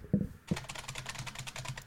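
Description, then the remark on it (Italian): Rapid typing on a computer keyboard by a female carabiniere entering a name and surname, a dense run of quick, light key clicks starting after a couple of soft thumps and continuing steadily, with no talking. “lei che digita.”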